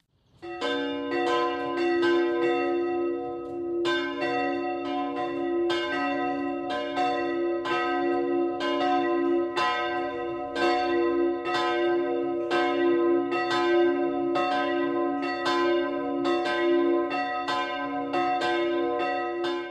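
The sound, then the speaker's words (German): Church bells of the Catholic branch church of St. Martin in Dürnhausen, Upper Bavaria, Germany, ring the 12 o'clock midday peal, dense overlapping strokes in a steady, continuous rhythm with bright metallic overtones and a sustained hum beneath, loud throughout with no voices. “Das Mittagsläuten kommt heute von der katholischen Filialkirche St. Martin im oberbayerischen Dürnhausen.”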